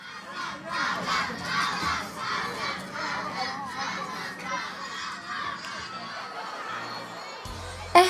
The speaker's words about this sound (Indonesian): Pada suatu pagi, di sebuah kelas yang ramai ketika bel masuk belum berbunyi, terdapat beberapa siswa yang sedang asik mengobrol tentang tugas IPA minggu lalu.